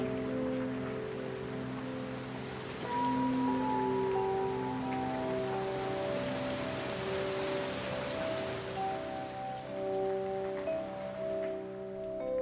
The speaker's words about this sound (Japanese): あれでもよく耳を澄ましてみて雨の音がだだん弱くなってきたよ雨が止んでもうすぐ晴れるのかな